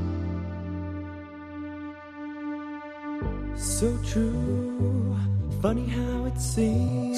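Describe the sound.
An eighties-style pop song plays, opening with sustained synth chords before a steady drum beat and bass kick in partway through, with a singer's vocals over the music.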